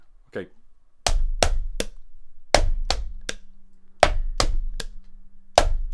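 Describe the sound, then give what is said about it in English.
A clothes hanger struck in an attempt to play a recognizable tune within sixty seconds, in quick groups of three sharp, ringing clanks, spaced by short pauses like a rough rhythm, with a faint low hum lingering between some of the hits. “You got sixty seconds to make a song, a recognizable tune, using only the hanger.”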